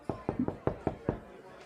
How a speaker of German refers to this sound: Und ähm, hat gerade auch geklopft. Ne? Ich weiß nicht, ob du Besuch erwartest, aber da steht noch jemand vor der Tür.